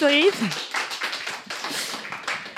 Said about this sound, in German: So früh hat übrigens noch nie ein Gast einen Applaus bekommen.